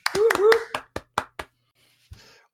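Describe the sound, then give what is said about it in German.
Brief applause: about seven sharp hand claps from a single clapper, quick at first and then slowing and fading, with a short cheering vocal whoop over the first few claps, given as a shoutout to a new patron. “Äh, vielen Dank, äh, großes Shoutout, Applaus und äh, Liebe gehen raus an Christopher Heinz.”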